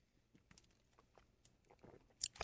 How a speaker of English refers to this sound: Had to take a little gulp of water.